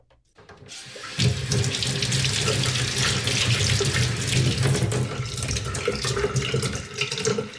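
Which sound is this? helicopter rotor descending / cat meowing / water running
water running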